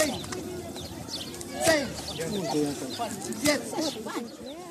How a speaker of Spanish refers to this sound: Lo que se escucha al fondo es una joven recibiendo 15 latigazos. Se robó la computadora de su vecina. Por eso le toca este castigo, que se llama Shikai. Es parte de la justicia indígena maya que se ha practicado en Guatemala desde hace siglos.